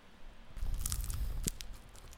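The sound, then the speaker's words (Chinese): A crunchy bite into grilled barbecue skewer food, a grilled tofu-skin pouch (dou bao) from a small shop near home, with a burst of crisp crackling and chewing noise, a sharp snap near the middle, then softer munching fading out. No talking. “啊，有有有有酥脆的声音，有有有。”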